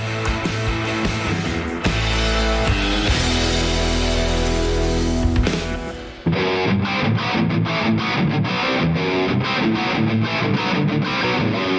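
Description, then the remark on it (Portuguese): A loud instrumental intro jingle with a distorted, rock-style sound: a thick sustained opening, then an abrupt switch around the midpoint to a punchier, rhythmic pulsing section. No voices. “Roda a vinheta!”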